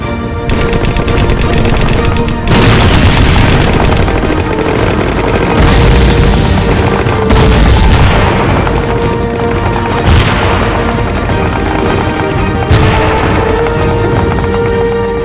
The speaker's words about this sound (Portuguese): A 34ª Divisão de Infantaria norte-americana chegou a cruzar o Rio Rápido e avançar até próximo da abadia de Monte Cassino mas se depararam com os ferozes contra-ataques alemães, com intensas rajadas de metralhadoras e disparos de morteiros.